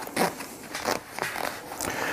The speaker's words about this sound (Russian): Очень толстая он, он, молния. Он пока еще новый, это нормально. Давай я попробую.